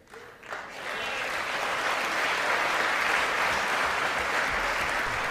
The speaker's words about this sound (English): There's Nancy clapping away again. Clapping away at this bullshit.